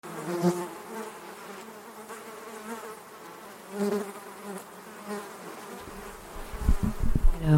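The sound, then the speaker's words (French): Mosquitoes whine close to the microphone in a marsh at their peak hour, a thin high buzz that swells as they pass by and fades, with a low rumble of handling or wind near the end. “C'est vrai que on entend au micro les petits moustiques qui passent, c'est la bonne heure.”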